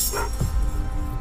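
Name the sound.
dog barking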